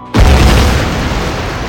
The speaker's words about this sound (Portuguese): resultando numa grande explosão que matou os alemães naquele local com uma onda de choque.